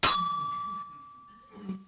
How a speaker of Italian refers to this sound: Però è una campana o no? Anche se è un po' stonata. Eh? È una campana, giusto? Siamo tutti d'accordo che questa sia una campana?